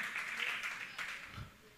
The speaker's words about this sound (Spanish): Un aplauso para las señoras que están. Hay una sola.